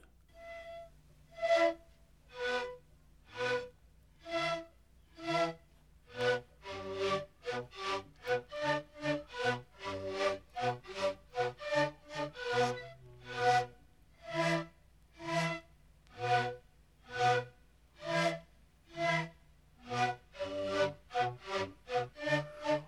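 South American Indian wind instrument music: a steady, rhythmic run of short, reedy notes, each with an audible puff of the player's breath, played alone without any voices.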